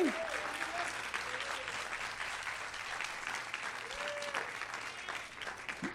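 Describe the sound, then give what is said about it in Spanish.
A large crowd at a church sermon applauds the Lord steadily for several seconds, a dense, sustained wash of clapping with a few faint voices calling out beneath it. “Pero denle un aplauso al Señor”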